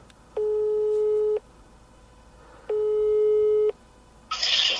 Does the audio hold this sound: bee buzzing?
no